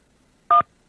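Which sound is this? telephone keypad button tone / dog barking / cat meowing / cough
telephone keypad button tone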